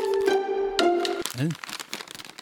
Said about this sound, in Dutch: Eh, even kijken, wat moet ik even, eventjes bij eh, ritselen. Oh, dat toepasselijk, want je hoort natuurlijk een hoop geritsel.